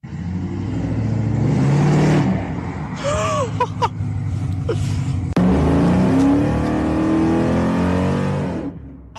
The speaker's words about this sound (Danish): De har lyde fra øh, den forgangne weekend. To 300 biler var samlet for enten at køre, eller fordi deres øh, altså menneskerne i bilen, skulle se på gaderæs, som blev kørt i nærheden af Roskilde.